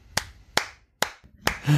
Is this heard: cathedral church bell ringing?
no